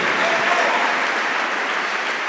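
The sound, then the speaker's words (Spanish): A church audience bursts into steady, sustained applause for God, a dense wash of many hands clapping at an even loudness throughout, with no voices standing out above it. “Dale un fuerte aplauso a nuestro Dios y di gracias a Dios por tu bondad.”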